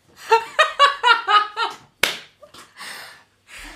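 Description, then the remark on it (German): A single loud, sharp smack on a buttock cracks out after a few seconds of rhythmic, voiced laughter, followed by quieter breathy rustling. “oh Gott, ich glaube, das klatsche mal richtig laut.”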